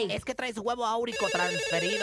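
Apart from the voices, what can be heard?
telephone ringing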